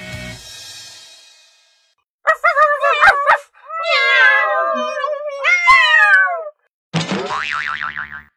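A cat meows loudly several times in long, wavering, high-pitched cries, between a short run of choppy yelps and a warbling, springy sound at the end. No one speaks.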